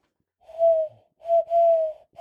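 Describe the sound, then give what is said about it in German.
Hollow, breathy owl hoots blown through cupped hands: one long hoot, a pause, then a short note running into a longer one, with no talking. “Huhu, ähm, ich kann machen wie eine Eule, warte.”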